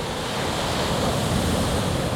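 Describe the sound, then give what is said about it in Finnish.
Constant wind rushes across an outdoor microphone placed behind a rock, a steady, full-bodied roar with low rumbling buffets that never lets up. Nobody speaks. “Tuuli rupeaa, mutta jos mä laitan tuohon kiven taakse tänne mikin, niin varmuudella saadaan kunnon ääni.”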